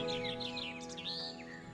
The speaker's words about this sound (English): He becomes acutely aware of the birds heralding the dawn outside the window.